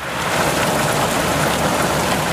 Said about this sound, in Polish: Są ludzie odważni. Nie szykują się na deszcz, nawet jak zbierają się chmury i słychać grzmoty.